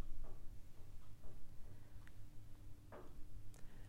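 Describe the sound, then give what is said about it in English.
A clock ticks steadily at about one tick per second, soft clicks over a low, constant background hum, with no one speaking. “You're simply aware of everything that is happening. The sound of the clock, my voice, your breathing, your heartbeat, your brain, your body.”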